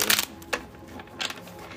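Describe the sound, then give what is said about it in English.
Three short, papery swishes of tarot cards being pulled from a deck for a reading, spaced unevenly and fairly soft, with faint background music underneath and no talking. “and last but not least sagittarius let's pull a couple cards for you”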